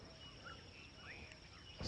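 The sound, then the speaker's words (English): A faint outdoor ambience after a little rain, with a steady high drone of emerging insects and a few brief, soft bird chirps scattered through it, ending in a short rustling burst. “the emergence of insects and the birds are gleeful.”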